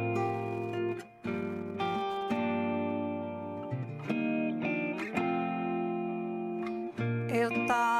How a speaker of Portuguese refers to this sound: para encerrar, a gente vai escutar então a música …